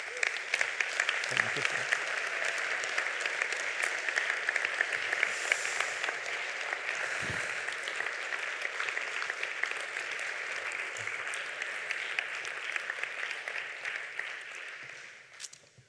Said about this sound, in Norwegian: Dere må gi dem en applaus.